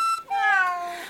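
A single cat meow, clear and close, with a short rising onset that settles into a long, drawn-out falling tone lasting about a second, heard on its own without any talking.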